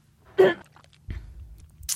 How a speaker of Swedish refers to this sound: jag inser att jag kanske måste sjunga upp lite i bilen innan jag kommer hit, för jag får alltid kråkor i halsen. Så ursäkta, nu har jag hostat klart, jag har druckit vatten och nu kommer det här då.